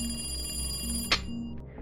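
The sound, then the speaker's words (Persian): A telephone rings with a steady, bright, high-pitched electronic tone over a low hum, then stops abruptly after a sharp click partway through. “تلفن دوباره زنگ خورد یه نفس عمیق کشیدم و گوشی رو برداشتم”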